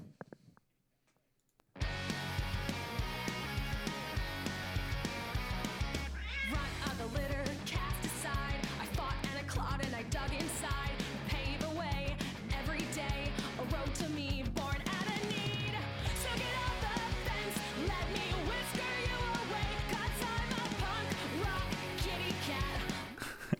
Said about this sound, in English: I mean, it's just, it's just like, it it just like is a punk song you would hear like in the background of like a high school like yeah, movie.